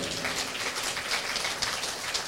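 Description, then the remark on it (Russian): Steady applause from a concert audience welcoming the youngest performer, a dense, even patter of many hands clapping at once without pause, with no voices over it. “Давайте встретим ее аплодисментами.”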